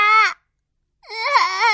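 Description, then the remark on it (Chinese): A voice imitates a child crying, voicing the weather baby character of a story: a short, high wail that breaks off, then after a pause a longer, louder sobbing cry with a wavering pitch. “可怜的天气宝宝掉下了眼泪。”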